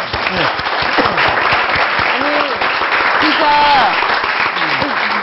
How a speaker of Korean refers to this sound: 말씀하시기가 쉽지 않은 것이 목회자분들인데 이럴 때는 또 목회자분들께 저희가 박수 한번 드려야 되는 거예요.